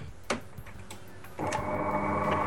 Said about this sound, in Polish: No to zaczniemy sobie od tego, że ekspres włączymy, tak? Czyli wciskam Pierwszy przycisk e, po lewej stronie, te cztery przyciski, o których mówiłem w kształcie prostokątów, tak? Tak. No to włączamy.